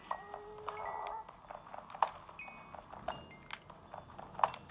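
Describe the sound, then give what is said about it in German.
Cows moo in a video game as they are being bred, several short calls spread across a few seconds against a soft, busy background of game noise, with no one talking. “Wir können gleich auch noch auf Obstfeldern ein bisschen Kühe vermehren.”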